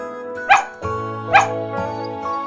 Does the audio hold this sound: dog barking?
yes